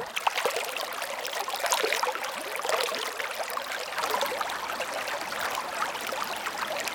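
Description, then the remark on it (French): The young Meuse river, still a small stream, rushes and burbles steadily under its first bridge just outside a village, a continuous wash of bright trickling water with no voices, holding an even level throughout. “Sous le pont de font ouvragé, elle ne s'est pas étouffée, elle s'est étoffée pas encore un fleuve, mais un vaillant ruisseau, cascadeur agile, trace à caillou sa route d'argile.”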